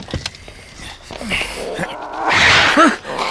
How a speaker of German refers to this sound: Das ist doch der Kater der Murphys. Mensch, Eddie, du hast in meinem Wagen nichts zu suchen. Raus! Eddie, komm da sofort raus!